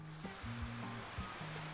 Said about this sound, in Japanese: 白い砂浜に並んだビーチチェアに腰掛けるとさざ波の音だけが耳に届きさまざまな思いが巡る